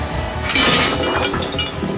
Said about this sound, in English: Their hooks crashed together and wrapped around each other in a big knot.